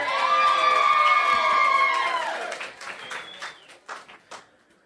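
A loud burst of crowd cheering with sustained high whoops, giving way to scattered applause that thins out and fades over the last couple of seconds.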